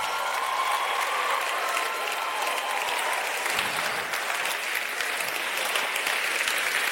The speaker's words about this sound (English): Just give a better clap offering to Jesus, will you please?